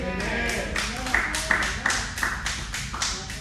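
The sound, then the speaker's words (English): An audience at a church claps three times in unison, sharp crisp strikes at a steady, fairly quick rhythm, with a murmur of voices beneath. “Three claps.”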